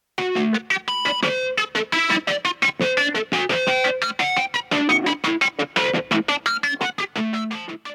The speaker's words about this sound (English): And the song starts off with the harmonics guitar